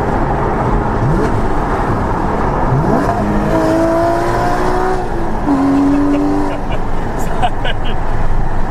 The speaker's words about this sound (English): But this, you have to drive drive it, um, and it is it's an incredible, incredible car. See, I can give you a little bit of engine sound.